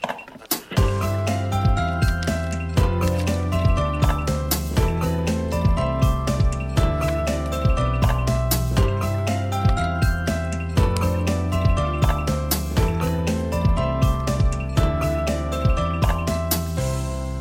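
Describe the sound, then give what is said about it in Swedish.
A short, upbeat musical jingle plays on its own, steady beat and bright layered instruments running continuously at an even, fairly loud level, with no voices over it. “Jag, jag tänker att vi kan köra en vignett och så kan du få höra rubriken och så kan du liksom få spekulera ja.”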